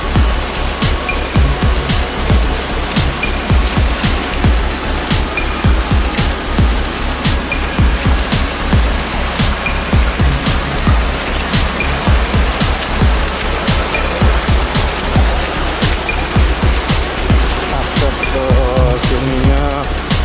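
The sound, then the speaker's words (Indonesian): Heavy rain, falling since morning, pours down steadily at a bamboo bridge on a slippery, muddy path: a dense, loud hiss with scattered sharp patters of drops, over a low rumble that could be a passing vehicle or engine. No one speaks. “Uduh, jalannya sangat eh, licin dan becek karena suasanya dari tadi pagi hujan dan besar sekali tidak terang-terang”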